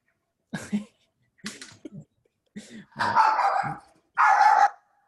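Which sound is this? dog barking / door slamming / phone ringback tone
dog barking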